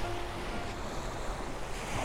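waves lapping

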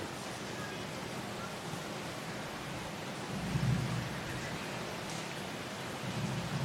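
thunderstorm with rain

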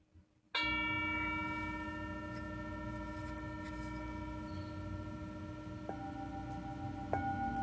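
singing bowl ringing

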